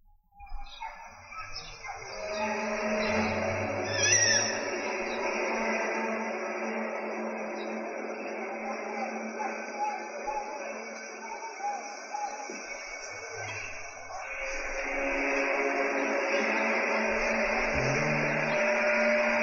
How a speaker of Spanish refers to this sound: imaginarte el sonido de trompetas en el cielo a lo mejor es como, es raro, es difícil, algo así, pero escucharlo, te lo juro, escucharlo es, es otra cosa, es muy diferente. Miren, ahí va.